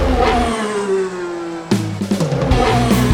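A car engine revs loudly and close by, its pitch climbing steadily, then a sharp burst of roaring revs and gear changes follows in quick succession.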